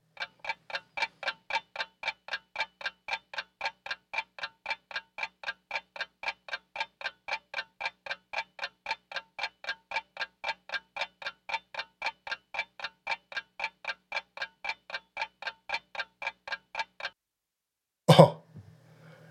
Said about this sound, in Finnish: Mutta sulkekaa nyt silmänne ja pohtikaa sekuntikellon käydessä, mikä piti äänen, jonka juuri kuulitte.